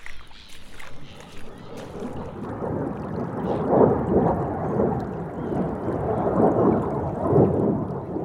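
Ocean waves wash in with the tide in a steady rushing roar, swelling into louder surges a few times before easing back, with no clear pauses between them.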